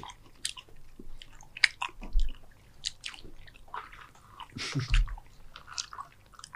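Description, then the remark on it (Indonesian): Wet, irregular chewing with soft crunches and squishy bites, a few sharper bursts of mastication scattered over several seconds, fairly quiet with no talking. “Kalau makan makanan sih enak.”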